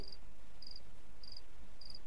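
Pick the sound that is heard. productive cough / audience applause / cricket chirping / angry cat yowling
cricket chirping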